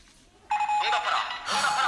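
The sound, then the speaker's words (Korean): A telephone rings and is left unanswered, with a steady electronic tone that starts abruptly after a brief quiet moment, then turns brighter and busier toward the end, fairly loud. “그럼 전화를 왜 안 받아?”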